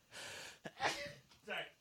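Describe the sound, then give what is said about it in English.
A sudden sneeze bursts out after a sharp breathy intake, followed by a brief snort-like exhale. It is short and fairly loud, with no clear speech around it. “then watching you sneeze.”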